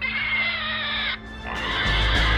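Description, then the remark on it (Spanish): A man screaming in a horror film: a loud, sustained, strained scream, harsh and harmonically rich, breaking off briefly and then resuming with rising intensity and a low rumble underneath. No speech. “reaparece chillando”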